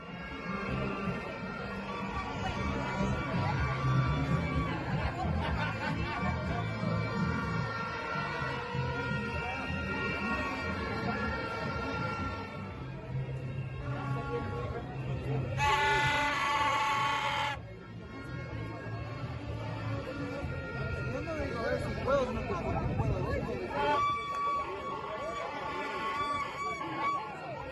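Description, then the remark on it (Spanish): A constant drone of vuvuzela horns blares over a noisy crowd, with overlapping buzzing tones throughout and one especially loud, bright horn blast for a couple of seconds midway. Voices mingle in the background. From a video published by the newspaper La Hora. “Y bueno, creo, pienso que para que estén escuchando la bubucela, nuestros oyentes, sobre todo quienes nos acompañan en la 102.1 FM, dejándolas para que sintamos el ambiente.”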